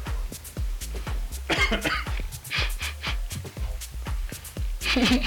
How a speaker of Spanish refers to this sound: Mejor quédense a escuchar nuestras toses, son más bonitas.